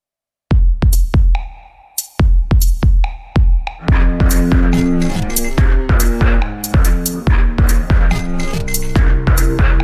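An instrumental electronic track opens with sharp, clinking percussive hits over a steady pulse, then fills out after a few seconds with layered synth tones and a busy, driving rhythm, loud and up front.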